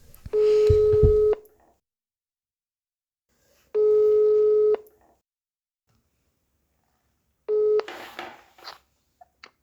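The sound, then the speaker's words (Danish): A telephone ringback tone sounds over the line as a call is placed from a studio to a 98-year-old grandmother: three steady, fairly loud beeps about a second long with pauses between. The third is cut short by a rustle as the call connects. “Ja, så øh, vi hører lige et lille klip her, hvor vi sidder og, og ringer til hende fra studiet.”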